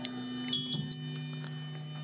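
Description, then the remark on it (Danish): A laser cutter hums steadily, a low drone with layered electrical tones and a faint high whine, broken by a few soft ticks and clicks. No one speaks. “Jeg, jeg ved godt, Den, den summer lidt nu.”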